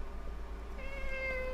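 A single drawn-out cat meow, fairly quiet and steady, with a sustained tonal wail over a low background hum and no talking.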